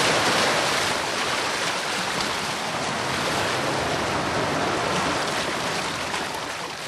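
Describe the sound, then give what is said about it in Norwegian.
Waves of the Caspian Sea wash steadily against the rocky beaches of the old Persian city of Derben, Russia's oldest city. A dense, continuous roar of surf with no pauses, fairly loud, with a hint of wind and no voices. “Bølgene fra Det kaspiske hav slår mot de steinete strendene i den gamle perserbyen Derben, som er Russlands eldste by, 3000 år gammel.”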